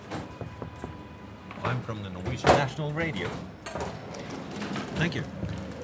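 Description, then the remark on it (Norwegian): After knocking, a few clicks give way to a hidden door in a rounded wall, beside a display case in the coins and medals department on the third floor of the British Museum, sliding open with a broad mechanical rumble and scrape, while indistinct voices murmur in the room. “Veggen åpner seg, og inn går vi.”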